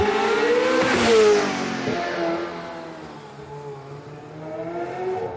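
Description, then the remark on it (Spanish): A Ferrari sports car engine roars loudly as it revs hard, then its pitch drops and it keeps growling while pulling away from a house, with no voices present. “De pronto, oyen el acelerón del Ferrari.”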